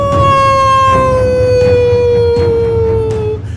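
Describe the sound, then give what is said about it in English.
A person howls like a siren or wolf in one long, loud, sustained wail that slowly slides downward in pitch for about three seconds, over a low background rumble. “I don't have the clip button right now, but I can do it myself. Y'all howl with me.”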